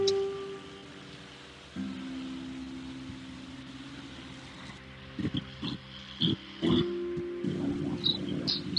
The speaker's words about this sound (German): Es ist überhaupt ein Rasenmäher. Nee, ich glaube, das ist so ein. Klingt eher wie so ein Häcksler oder so ein. Äh, kennen wir ja nicht aus. Irgendwas im Garten wird gemacht auf jeden Fall.